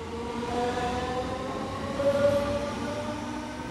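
An S-Bahn commuter train in Saarland rolls along the rails with a steady rumble and a faint whining motor tone that rises briefly midway. No voices are heard.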